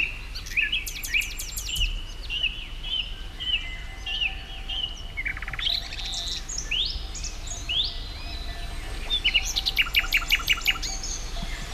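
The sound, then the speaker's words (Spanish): A nightingale and a song thrush sing at once, overlapping phrases of rich whistles, trills and sharply repeated note bursts over a soft, steady background hiss, with no voices. “Tenemos a un ruiseñor, con su bien merecido prestigio, cantando al mismo tiempo que un zorzal común”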